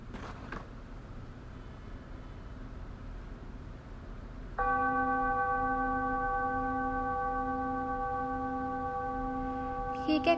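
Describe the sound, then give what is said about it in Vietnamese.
A single meditation bell is struck partway through to mark the start of a five-minute guided meditation, ringing out with a long, steady, shimmering sustain and a slowly pulsing low hum, clear over a faint background hiss. “và khi mà tiếng chuông bắt đầu thì các bạn nhắm mắt lại và nghe theo lời dẫn của chân và khi mà hết 5 phút thì một tiếng chuông khác sẽ vang lên để mà các bạn biết là bài thiền đã kết thúc”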